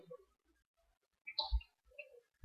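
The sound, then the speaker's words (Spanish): A soft computer mouse click opening a PDF file, a quick double tap near the middle of a quiet stretch, followed by a faint light knock shortly after. Nobody speaks. “Le di clic y vean, ahí está.”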